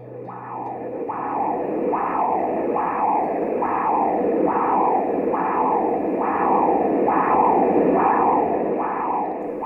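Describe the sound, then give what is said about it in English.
Blood rushing through three major arteries in the brain (the anterior cerebral, the middle cerebral and the terminal internal carotid), heard as a steady train of loud, whooshing pulses, about one per second, each swelling and falling away like a heartbeat, with no voices. “What you're hearing is the sound of blood rushing through three major arteries in the brain the anterior cerebral, the middle cerebral, and the terminal internal carotid.”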